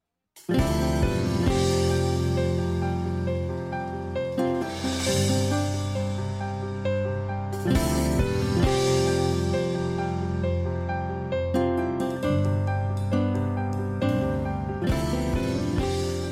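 A full-band pop song plays loud, with steady harmonic instruments, bright cymbal wash and periodic drum hits across the whole stretch, no talking over it.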